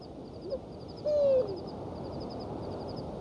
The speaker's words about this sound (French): Un hibou grand-duc du désert lance son chant.